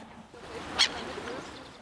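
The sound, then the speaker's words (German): A single short, harsh alarm call from a black-headed gull, a sharp clipped squawk that rises briefly above a steady, low background murmur. “Und dann gibt es noch den Feindwarnruf. Wenn zum Beispiel ein Hund vorbeigeht oder so, und dann macht eine ganz kurz Quack.”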